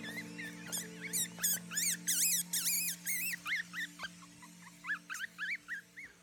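Newborn mink kits squeak during an evening check of mink females that have given birth, a rapid, overlapping chorus of high, thin cries, some rising and falling, over a steady low mechanical hum, with no talking.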